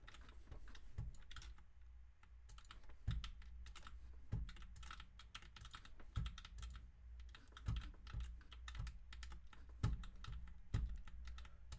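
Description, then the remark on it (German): Rapid, uneven clatter of computer keyboard keys being pressed while playing a computer game, with frequent sharp clicks and occasional heavier thumps, continuing steadily with no talking. “Digga, es ist so ein Sweat auf meiner Tastatur gerade, Digga.”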